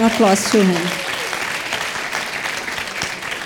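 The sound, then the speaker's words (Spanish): Loud audience applause, a dense steady clatter of many hands clapping that holds for several seconds, with a short burst of voices rising over it at the start. “porque él se identificó con todos él ese fuerte aplauso”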